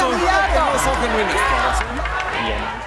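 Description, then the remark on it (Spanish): A dense, agitated crowd shouts and clamors around Peña Nieto as he is questioned while leaving a university through a back door, overlapping voices filling the space loudly and continuously with no single speaker standing out, plus low rumbling thumps underneath. “El audio no tiene buena calidad por los gritos que había alrededor.”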